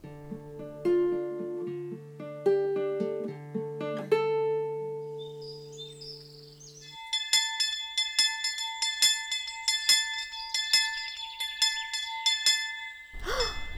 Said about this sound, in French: La cloche aux orphelins Voilà, j'arrive Personne, évidemment. Encore ces garnements qui s'amusent à me faire courir quand je repique les poireaux.